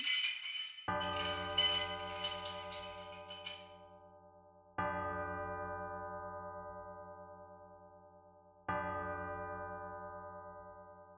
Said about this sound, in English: No! Ghostly bell tolling.